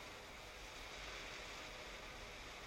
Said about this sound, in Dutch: Wat is de zee nu kalm?